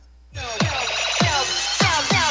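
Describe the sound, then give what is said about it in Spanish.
An electronic telephone tone sounds as a caller's call to a radio show drops, a buzzy, harmonic drone with sharp, evenly spaced downward chirps repeating about every half second. No one speaks. “Ah, se cortó la llamada.”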